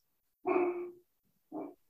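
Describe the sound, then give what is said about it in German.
A dog barks twice, a longer, drawn-out bark followed by a shorter one after a brief pause, clear with nothing else around it. “Bringen Sie den Hund zum Schweigen.”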